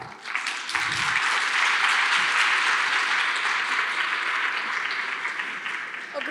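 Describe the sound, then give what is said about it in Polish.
Sustained audience applause for a speaker who has just finished her presentation, a dense wash of many hands clapping that fills the whole stretch at steady, fairly loud volume, with no one speaking over it. “brawa dla Ciebie, a my mamy kilka pytań.”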